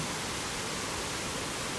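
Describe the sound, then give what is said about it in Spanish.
A steady, even rush of flowing water, like a stream or waterfall, continuous and unchanging with no voices or other sounds. “Y con este sonido el cuerpo recuerda a través de las moléculas del agua que están en nuestro interior.”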